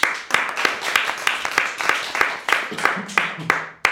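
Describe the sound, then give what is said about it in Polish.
Audience applause for the listeners and patrons at a live meeting at CKF on Aleje Jazdowskie in Warsaw, with sharp, steady claps, a few per second, holding an even level throughout, with a faint voice briefly audible underneath near the end. “Wielkie brawa dla Was.”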